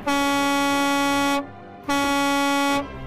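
A truck air horn sounds two long, loud blasts, the first about 1.3 seconds and the second about a second, with a brief gap between them and a low engine rumble underneath, from a truck bringing a woman to her big day.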